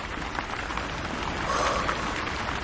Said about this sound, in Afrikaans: Dit lyk of 'n groot kraan oor die huis oopgedraai is. Kyk net hoe loop water teen die vensters af.